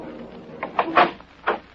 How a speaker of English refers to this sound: When I finally got to his door, it was opened